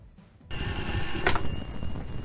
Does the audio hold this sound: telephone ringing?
yes